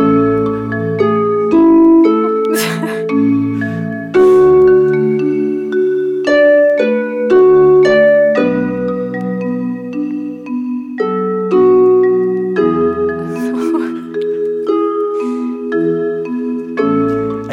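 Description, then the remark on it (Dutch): An AI-generated music track made from a photo: a bright, simple instrumental tune plays on its own, with plinky synth-like chords and melody notes changing in a steady, mechanical rhythm, loud, with no voices. “Dit is gewoon de nieuwe Nokia wordt wakker tune of zo.”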